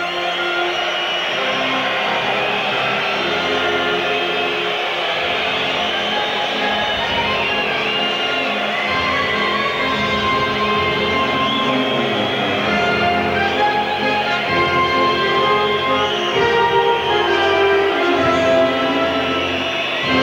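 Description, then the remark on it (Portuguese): A large crowd boos steadily and loudly for the whole stretch, a dense unbroken roar of jeers layered over a band playing the Moroccan national anthem underneath, at a race ceremony after the winner is announced. “As vaias se estenderam por todo o hino marroquino.”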